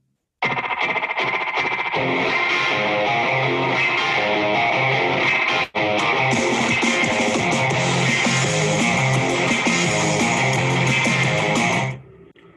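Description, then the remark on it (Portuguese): A loud, driving punk rock song with heavily distorted, effects-soaked guitars and a twangy surf-rock flavor, playing continuously with a brief break midway before cutting off at the end. “Essa vibezinha de surf, muito parecidos lá, que eu sei que não é totalmente idêntico, mas não lembra, cara.”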